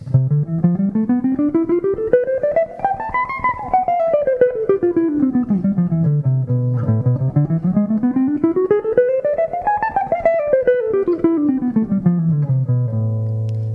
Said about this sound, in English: I'm going to ascend in C major, and I'm going to descend in C major in a different position, and then I'm going to ascend in A minor and descend in a different position. It sounds like this.